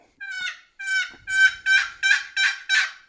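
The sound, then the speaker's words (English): A series of seven sharp, raspy turkey yelps blown on a turkey call, evenly spaced and getting quicker and louder toward the end, clear with no talking. “And as long as you can yelp, you got a chance at killing a bird.”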